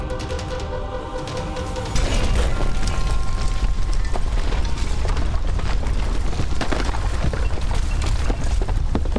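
A bomb thrown into a room explodes at a person's feet, bursting in loudly after a brief quieter tonal lead-in, then continuing as a dense, roaring rumble with crackling debris that stays loud to the end.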